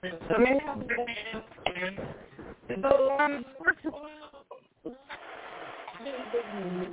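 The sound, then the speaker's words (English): A voice over a phone line on a new phone service sounds thin and muffled, cutting in and out with brief dropouts and garbled, warbling stretches before turning into a hissy, broken-up jumble. “you're you're breaking up your phone.”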